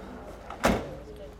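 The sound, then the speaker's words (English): A white cargo van's door shuts once with a single solid thud after a coffin is slid into the back at a morgue loading dock on a cold, wet September morning. The thud cuts through a steady low background hum and a faint murmur. “body is carried down from the loading dock in a pink satin lined coffin and slid into the back of a white cargo van.”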